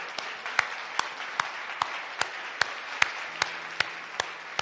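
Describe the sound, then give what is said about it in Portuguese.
A standing audience at a Christian worship service applauds Christ steadily, a dense wash of clapping with a regular, evenly spaced beat of sharper claps running through it, like people clapping in time. No one speaks. “E uma vez de pé, Dás um aplauso a Cristo, por favor.”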